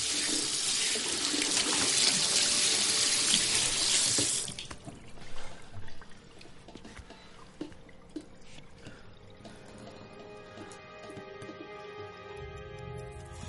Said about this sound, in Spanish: La cocina del apartamento. Víctor se inclina frente al fregadero y bebe agua del grifo. Coge agua con las manos y se moja la cara.